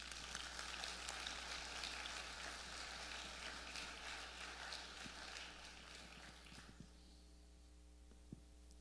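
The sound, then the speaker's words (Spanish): A crowd applauds for a group of people at a preacher's request, with dense, steady clapping for about seven seconds before it dies away, leaving only a low electrical hum. No one speaks. “Denle un aplauso a ellos.”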